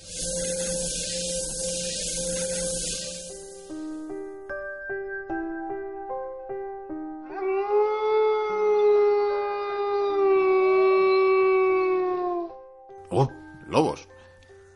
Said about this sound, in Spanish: Como puedes ver, está todo oscuro, hay mucha niebla, oímos lobos, búhos, estamos en un sitio oscuro, tétrico.